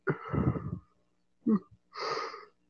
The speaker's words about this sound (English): Probably going to be yawning a lot during this podcast, and I'm sorry.